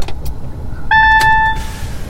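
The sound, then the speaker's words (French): A bright electronic two-tone chime rings out clearly inside an electric car as the key is turned and the car starts, holding steady for about half a second over a low hum of cabin noise, followed by a soft whoosh of the ventilation. “Ding dong, c'est bon. Voilà, la voiture est démarrée, on entend.”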